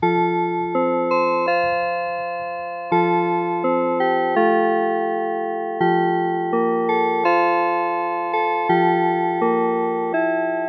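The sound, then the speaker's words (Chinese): An electronic school dismissal bell chime plays a slow melody of clear, sustained bell-like notes. Each tone rings and fades before the next, and the tune repeats in phrases with no talking. “那比如说我们在放学的时候啊，很多学校的放学的时候都会播放一个钟声，我放给大家听。”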